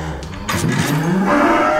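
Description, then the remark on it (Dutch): A cow lets out a low, rumbling moo that swells after a brief pause and holds steady, loud, with no talking over it. “Maar dat lage, lage brommen, betekent dat iets? Ja, dat lage brommen is heel erg belangrijk.”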